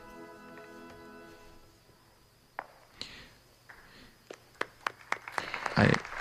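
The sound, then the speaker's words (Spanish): An audience in a church begins to applaud at the ceremony for bishop-elect Francisco Conesa, as he and the papal nuncio embrace: fading sustained tones give way to a few scattered, sharp claps that quicken and thicken into a brief burst of clapping at the end. “Pues este aplauso llega con ese abrazo tan emotivo que acaban de darse claro.”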